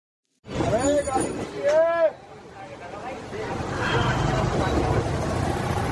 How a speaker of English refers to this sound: Man, Delhi is hot, it's busy, and it's full of traffic this is absolutely mental.